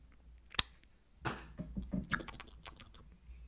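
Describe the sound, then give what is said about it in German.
A sharp lip smack like a kiss blown into the microphone, followed by a stretch of wet mouth clicks and smacking noises, with no talking. “Ich habe geküsst. Ich habe ein Küsschen gesendet.”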